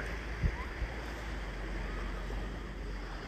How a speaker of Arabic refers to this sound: أنا ممتن للجو هذا اللي نعيش فيه لصوت الموج اللي نسمع فيه للريح تاني صوت الريح